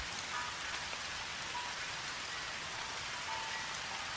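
Steady rain falls and patters on surfaces around a small, peaceful temple in Japan, a dense, even hiss with scattered drips, continuous and moderately soft throughout with no voices.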